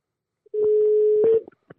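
A steady, loud telephone dial tone hums for about a second while a quick series of clicks from a number being redialed after hanging up breaks over it, followed by a few sparse clicks after the tone stops.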